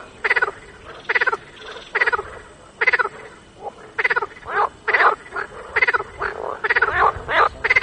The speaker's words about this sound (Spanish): Y yo he elegido una en la que, bueno, mm, hay unas ranas colando que improvisan un concierto, eh, suena así.